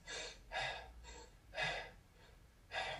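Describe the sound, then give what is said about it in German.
A person demonstrating breathing through the mouth, deliberately loud and airy: four quick, rough inhales and exhales in a steady rhythm, each a broad breathy rush with short pauses between, no talking. “wenn man durch den Mund atmet, das macht man auch ganz unbewusst im Alltag, dann sieht es wahrscheinlich so aus.”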